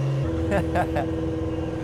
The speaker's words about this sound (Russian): Да ебаную мать, гонщики всякие ездят. Че он там делает, блядь? да? Конечно, шумно. Но... Да, надо попросить его выключить тачку.